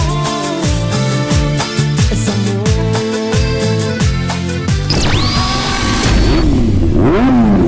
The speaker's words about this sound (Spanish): Sonidos de motores a la máxima potencia para pegar la vuelta.